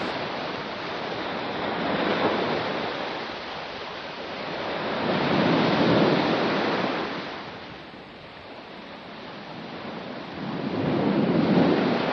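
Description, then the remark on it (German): Steady ocean surf rolls in and breaks on the shore, swelling into a loud wash about every four to six seconds before receding, with no voices present. “Die frische Meeresluft begrüßt mich und wünscht mir einen guten Tag.”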